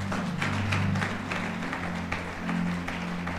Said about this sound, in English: Let's give a powerful clap.